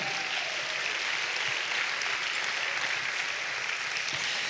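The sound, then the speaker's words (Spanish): An audience applauds God during a sermon, a dense, continuous patter of many hands clapping at once, sustained and fairly loud throughout without pause or speech. “Dale un aplauso a Dios por eso, amado hermano.”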